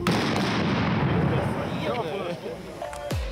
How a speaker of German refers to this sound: Ein einstündiger Parcours mit 19 Hindernissen liegt vor ihnen. Welche genau, das wissen die Kandidaten nicht. Startschuss.